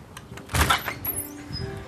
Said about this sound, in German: April öffnet die Tür ihres Bed and Breakfast hier in Winnipeg, der Hauptstadt Manitobas.